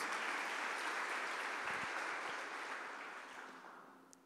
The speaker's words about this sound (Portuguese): Quero que você aplauda o Senhor para esses dois atores maravilhosos, meu Deus.